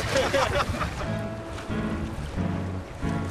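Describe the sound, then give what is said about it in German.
A boat crosses choppy water on Lake Starnberg, rumbling steadily with a low engine drone, wind buffeting the microphone and waves splashing against the hull. “Man denkt gar nicht, wir sind hier am Starnberger See, sondern irgendwie auf dem Meer, im Mittelmeer oder im Atlantik.”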